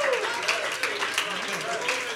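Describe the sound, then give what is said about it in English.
A crowd claps hands as unto the Lord during worship, in a steady, dense patter, with voices calling and cheering mixed in. The clapping stays fairly loud and continuous throughout the short stretch. “Come on, can you clap your hands as unto the Lord?”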